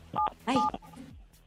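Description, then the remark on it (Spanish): Two quick beeps of phone keypad tones, each a steady dual-pitched tone lasting a fraction of a second, loud, followed by faint murmuring voices; a caller pressing 977 on a telephone keypad. “Entonces, presiona en tu teléfono el 977, corre.”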